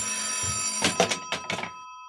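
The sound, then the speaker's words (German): A harsh, loud telephone bell rings insistently in two rapid rattling bursts, jangling metallic and urgent, then cuts off abruptly with nobody speaking. “Ah, aggressives Telefonklingeln?”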